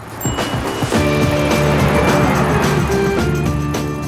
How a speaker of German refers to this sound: Und das im wilden Verkehr der Großstadt.